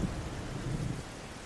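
Heavy rain pours down in a steady, dense, loud hiss with a low rumbling undertone, with no voices present.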